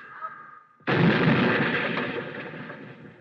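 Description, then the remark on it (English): A car whose brakes won't hold rolls down a hill, goes up on the sidewalk and smashes into a wooden fence: a faint engine hum, then an abrupt loud crash that keeps rumbling and clattering for over two seconds before slowly fading. “good thing I picked out a wooden fence.”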